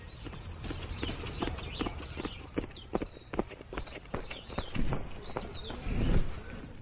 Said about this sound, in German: wir rennen den Hügel runter. Oh ja, gleichzeitig. Auf drei. Eins, zwei, drei.